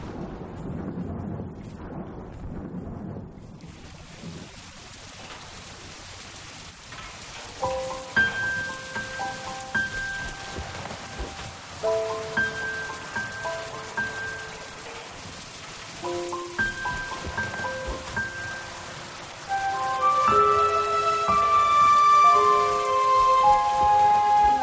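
Steady rain patters throughout. Soft melodic music notes come in after the first few seconds and build to a fuller passage near the end, while the rain continues underneath.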